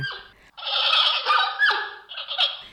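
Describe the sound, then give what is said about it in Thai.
A giant panda's mating call: a brief cry, then a long, loud, strained bleating squeal that wavers and breaks before trailing off, with no talking. “เสียงร้องของหมีแพนด้าก็อย่างน่ารักด้วยล่ะค่ะ การร้องของเจ้าหมีแพนด้าก็มีตั้งแต่ลูกหมีที่ร้องหาแม่แม่หมีที่ร้องหาลูก แล้วก็เสียงเจ้าหมีที่ร้องหาคู่ค่ะ”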